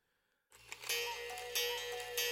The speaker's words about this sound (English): As the clock in the hallway chimed midnight, the race began.